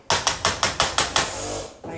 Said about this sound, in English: Refrigerator No, it's still doing the clicking on, clicking on. He said it's the relay. It's the what? Relay